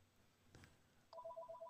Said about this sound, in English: Of course, my aunt's phone's ringing right now.